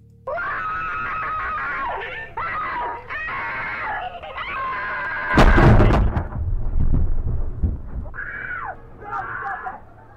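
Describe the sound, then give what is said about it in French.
Loud, strained screams of pain rise and break off repeatedly, with a sudden booming crash midway and rough thuds after, then more anguished cries near the end. “Ce trigger warning, ce serait pour des cris de douleur.”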